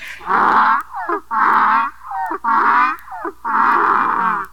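A donkey brays loudly in a repeated hee-haw rhythm, with four long, harsh, rasping blasts and short wheezy intakes between them, lasting several seconds with no talking.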